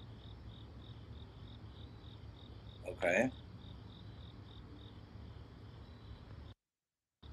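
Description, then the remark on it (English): Crickets chirp in a steady, evenly spaced rhythm throughout, a continuous outdoor night chorus in a parking lot, with a brief spoken word from a person partway through. “As you can hear the crickets, I'm right outside in my parking lot.”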